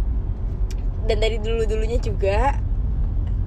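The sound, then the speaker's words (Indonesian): A steady, low road rumble fills the cabin of a moving car from start to finish, with a person speaking briefly over it in the middle. “btw kita masih ngerekam di mobil ya jadi maaf apa di banyak orang goblok yang nyetir jalanan ini maafin ya anak-anak”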